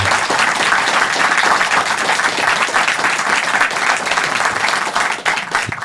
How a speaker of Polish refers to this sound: E, w takim wypadku teraz... klaski jeśli... będą przyjęte z radością, bo tak. to zawsze podtrzymuje na duchu. Podtrzymuje na duchu.